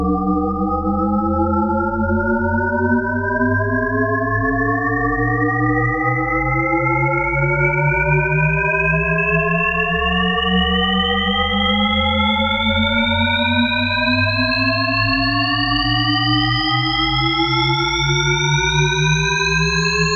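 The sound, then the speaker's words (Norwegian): A Shepard tone illusion: layered pure tones glide steadily upward for about twenty seconds, seeming to rise endlessly without ever getting higher, over a constant low hum. Loud and continuous, with no voices. “Og da tenkte jeg skulle begynne med The Shepherd's Tone, for de som ikke har hørt det.”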